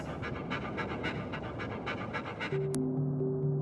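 A dog pants quickly and steadily, a rapid rhythmic run of breathy huffs, before a sharp click and a low sustained musical tone come in near the end.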